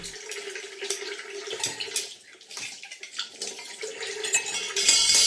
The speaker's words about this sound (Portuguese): O ambiente é calmo, já só se ouve o lavar e o arrumar dos talheres